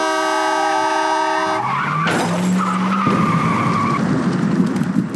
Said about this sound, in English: Hey, wait, what's that? Is that like a garbage truck? Paul-E. Oh, it's not a garbage truck. It's Paul-E. It's another of my robot kids. He's a dumpster robot.